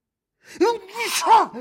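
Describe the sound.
A single fairly loud sneeze: a short voiced intake of breath followed by a sharp, noisy burst that trails off into a brief vocal tail.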